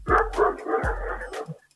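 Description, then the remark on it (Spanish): Two loud dog barks in quick succession, each a sharp bursting woof with a brief rough tail, followed by a faint trailing yelp, heard over a phone call from a caller at work in Amarillo, Texas. “Saludos, saludos a los perros que están por ahí.”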